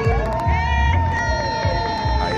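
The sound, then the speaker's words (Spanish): A crowd of parents cheers and shouts excitedly for their children running a race, a dense, continuous roar of voices with high whoops and yells rising over it. “Eh, los, nenes, los nenes disfrutando solo un montón y su papá sus papás bien fiebrú, como, si estuvieran viendo un corredor olímpico, todo vitoreando.”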